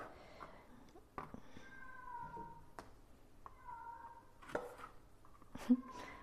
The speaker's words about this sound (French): Il se peut que vous entendiez mes chats pendant l'épisode, mais pour le coup, autant pour les interviews, j'essaie de m'isoler, autant là, pour les recettes, j'ai pas d'autre choix que d'être euh, dans ma cuisine. Donc mes chats se parlent entre eux